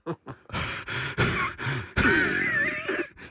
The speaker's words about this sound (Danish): prøv at høre, lad nu være med ånd på hinanden så meget. Ikke, ikke i opstarten.